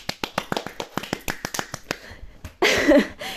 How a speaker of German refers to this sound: Eine Runde Applaus bitte für dich.